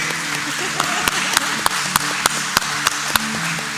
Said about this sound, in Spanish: Algo importante, en 1978 el presidente Carter eh, puso un nuevo feriado y hoy se celebra el Día de los Abuelos. Todos los abuelos se pueden poner de pie, por favor. Queremos darles un aplauso, un aplauso fuerte.